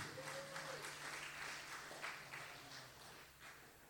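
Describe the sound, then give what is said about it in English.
An audience claps for Jesus, many hands blending into a dense, sustained wash of applause that fades slightly toward the end, with a faint tonal hum underneath. “You can clap Jesus. You can clap him.”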